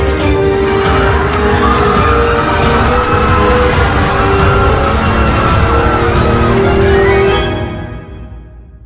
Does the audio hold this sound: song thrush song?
no